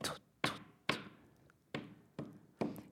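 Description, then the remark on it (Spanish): A ball bounces repeatedly off a room door and the floor, bouncing twice at the door before returning to the hand: six sharp thuds in an uneven rhythm, each with a brief resonant ring, with no talking. “con la diferencia de que los sonidos van cambiando porque pues es una pelota y toca la puerta, que la puerta dependiendo del material, si era madera, pues no de una forma y luego regresa a su mano.”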